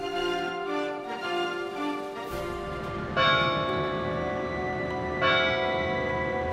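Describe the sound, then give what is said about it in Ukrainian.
The clock above the town hall strikes deep in the night, slowly, about three heavy tolls a couple of seconds apart, each blooming into a rich, sustained hum of overlapping metallic overtones. No voices are heard. “Так, б'є годинник над ратушею глибокої ночі, коли тривожно горить циферблат.”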